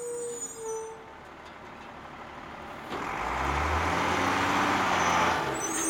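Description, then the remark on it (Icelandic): A garbage truck collecting household waste in Reykjavík: a low, steady engine rumble with a broad mechanical roar that swells noticeably louder about halfway through and holds there, with no talking. “Ef ekki verður samið í kjaratilu eblingar og borgarinnar mun hljóði öskubílónum ekki heyrast á næstunni.”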